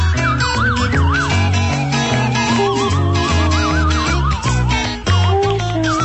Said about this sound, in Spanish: era el primer grupo en España que no utilizaba palabras en, en sus canciones y todos son soniditos, se llama …